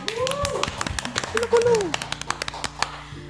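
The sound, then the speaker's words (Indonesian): A burst of hand clapping, many sharp, uneven claps overlapping for a few seconds, with voices calling out over them before the applause thins out. “oke keren amin, sekali tepuk tangan dong”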